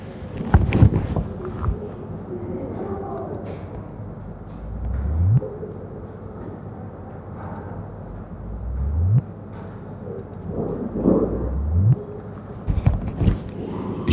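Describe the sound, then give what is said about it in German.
Sonified gravitational-wave signal from the merger of two black holes of 50 solar masses each, in noisy gravitational-wave detector data, recorded by holding a recorder to headphones: three low rising chirps, each sweeping quickly upward in pitch and ending abruptly, repeat every few seconds over a steady low rumble and faint background noise. “Man hat so ein bisschen so ein Wupp, Wupp gehört.”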